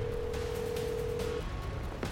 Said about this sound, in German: Er lässt seine Ausrüstung fallen, holt sein Handy aus der Tasche und gibt die Nummer seines Vaters ein.